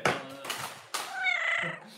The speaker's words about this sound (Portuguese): É, é o gatinho.